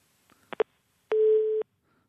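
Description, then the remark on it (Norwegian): A telephone line cuts off as the call drops: a couple of short clicks, then a steady, loud electronic busy tone holds for about half a second before stopping, with a faint click at the end. No one speaks. “Der hørte vi den karakteristiske lyden av en telefon som ble borte.”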